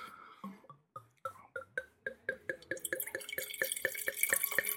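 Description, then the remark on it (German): Wine from a freshly opened bottle glugs into a glass in a quick, rhythmic series of gurgles that rise in pitch, then settles into a steadier splashing pour with a bright fizzy edge, with no talking. “Und lässt da einfach reinlaufen, ne? In den Hals.”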